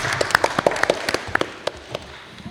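A short burst of applause from a small group, quick, irregular, sharp claps crowded together at first, then thinning out to a few scattered claps before fading. No one speaks.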